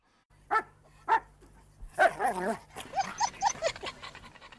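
A female dog barks twice with a short pause between, then breaks into a quick, excited run of overlapping barks and yips, fairly loud, over a faint low hum.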